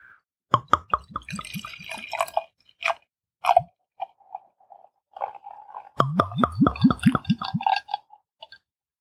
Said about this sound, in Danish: Det er jo næsten sådan, det er jo sådan en dægtigt øjeblik i det her øh, format, når det er, vi skal have de her øl åbne, så vi kan høre den dejlige lyd.